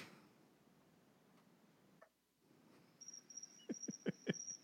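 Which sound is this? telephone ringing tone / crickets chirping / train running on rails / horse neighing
crickets chirping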